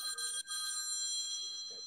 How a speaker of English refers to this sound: I'm curious about this. Very curious whose phone is ringing, which is fine. Who's got a landline? Oh, it's my phone. Is my mama calling? Your mom's calling on your cell phone? Yeah, she was just calling just now.